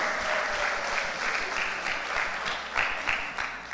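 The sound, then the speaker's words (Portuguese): An audience claps steadily together for Jesus, a dense, continuous wash of applause from many hands that holds at an even level for several seconds without voices standing out. “Muito bem, uma salva de palmas, para Jesus, para a vida daquela irmã ali que gritou a fé.”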